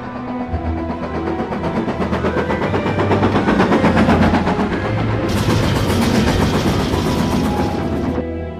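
The Hogwarts Express steam train at Platform 9¾ in a Harry Potter film chugs steadily, rapid rhythmic chuffs over a deep rumble and low hum, with a bright hiss of steam joining partway through; no one speaks.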